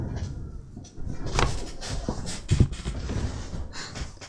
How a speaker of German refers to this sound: Ich muss mal mein Fenster zumachen.